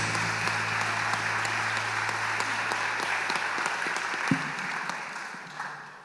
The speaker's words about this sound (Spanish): Démosle un fuerte aplauso al Señor Jesús.